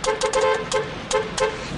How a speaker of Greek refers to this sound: Οχ, γιατί κορνάρετε κύριε.